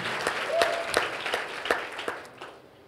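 An audience applauds with dense, crackling clapping, a few sharper individual claps standing out before the sound thins and fades away near the end.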